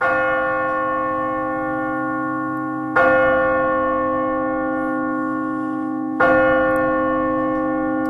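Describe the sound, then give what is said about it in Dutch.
A deep church hour bell tolls three times at a slow, even pace, each strike ringing out with a rich, sustained hum that lingers until the next. No voices are heard. “hoor het verschil in klank, maar waarom is de ene een bijaardklok en de andere is een kerkklok? Een tijdklok, een uurklok.”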